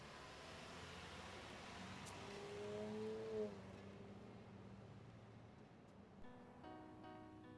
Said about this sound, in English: Once all has been retrieved, each and every last piece, he climbs back into the driver's seat of his waiting truck and he drives away, leaving all those houses behind.